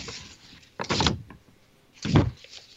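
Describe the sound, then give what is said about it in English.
Two short bursts of crinkly paper rustling from sheets of written notes, separated by a brief quiet gap, with no voices. “Sorry for the paper sounds. I wrote it all down here”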